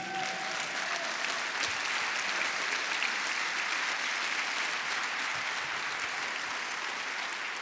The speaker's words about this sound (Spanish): Wow, demos un fuerte aplauso a Jesucristo.